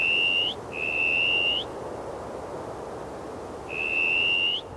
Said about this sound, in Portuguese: Os assobios tinham baixado de tom até desaparecerem por completo